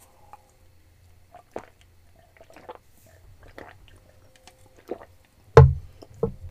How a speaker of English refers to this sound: I gotta drink some water.